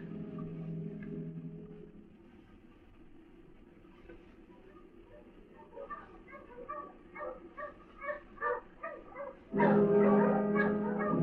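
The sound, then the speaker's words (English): Three dogs bark during a search with two uniformed men, in short, repeated yaps over a low rumble, the barks coming faster and louder until a final burst of loud, overlapping barking. “I peered down and saw the half English major, two uniformed men, and three dogs.”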